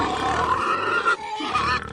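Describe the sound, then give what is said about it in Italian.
Pigs grunt and squeal loudly in a busy chorus, with overlapping snorts and harsh calls filling the whole two seconds and a brief dip in the middle. “Ma che cosa c'entrano i maiali adesso?”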